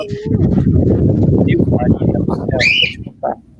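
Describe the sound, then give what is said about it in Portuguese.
A small bird gives a brief, bright, high-pitched chirp, loud and sharp, cutting through a dense rumble of background noise and voices. “nossa senhora, que passarinho Fia da puta, fia da puta, passarinho, fia da puta.”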